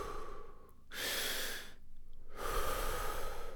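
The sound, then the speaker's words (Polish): Rapid, deep breaths in the second round of 40 full dynamic breaths, alternating forceful inhales and exhales in a steady rhythm with broad airy hiss and barely any pause between them. “Kolejne 40 pełnych dynamicznych oddechów. Wdech i wydech.”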